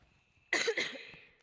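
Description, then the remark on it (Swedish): A single sharp cough bursts out, followed by a short rough second expulsion that fades quickly, with near silence before it. “Det är inte lätt att hosta med en sån här, kan jag säga.”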